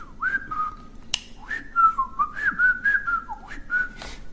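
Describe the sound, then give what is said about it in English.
A person attempts to whistle in a string of short, wavering notes that slide up and down unsteadily, broken by a few sharp clicks, like a faltering attempt at a tune. “Ah, I couldn't whistle. I missed the whistle.”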